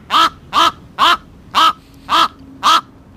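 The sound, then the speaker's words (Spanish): Six harsh, croaking common raven calls repeat at an even pace, each a short rasping burst with a hoarse, throaty tone. The bird sounds loud, with no voices present. “Así es, efectivamente, es un cuervo.”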